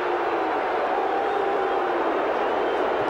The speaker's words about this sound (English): Boos are just so loud from the West Coast crowd.